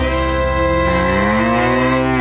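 A cow lets out one long, drawn-out moo, loud, with a steady droning tone that holds for about two seconds and slightly rises near the end. No other sounds.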